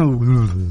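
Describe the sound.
A man's voice imitates a car air-conditioning compressor cutting off once the car reaches its set temperature: one brief, wordless hum that drops lower in pitch and settles near the end.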